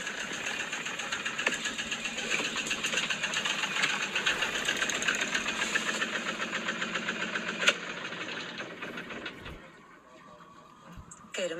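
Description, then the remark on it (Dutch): A small sailboat engine chugs loudly with a rapid, steady knocking rhythm, then is switched off near the end, leaving a much quieter background. “motor is weer uit. Maar die doet het.”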